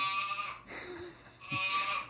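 A goat bleats twice in loud, wavering cries close by, with a brief quieter pause between the two calls.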